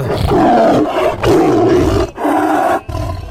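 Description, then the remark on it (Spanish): A tiger lets out a series of deep, loud roars, three or four growling bursts separated by brief pauses, with no talking. “Estaba un changuito ahí arriba de un árbol en eso que llega llega el tigre mm. y le pega un rugido nomás, ¿no?”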